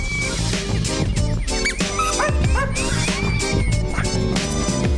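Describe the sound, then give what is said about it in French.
A female dog barks and yips excitedly in a rapid, continuous run of sharp, high-pitched calls with a few whiny tones, loud, with no one speaking. “Ouais, zéro autorité quoi sur le sur la chienne.”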